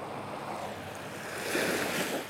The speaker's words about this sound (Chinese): 让大家听一听海浪的声音，希望家长们美梦香甜，希望孩子们能够睡个好觉。